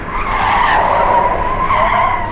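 Loud, sustained tire screech as a car skids and zigzags before plunging into a cart, a continuous high squeal that wavers in pitch for a couple of seconds with engine rumble underneath.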